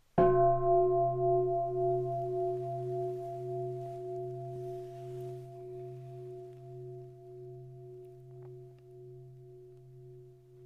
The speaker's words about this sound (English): So I'll invite the bell, and as I do, I, I invite you to settle into your breathing.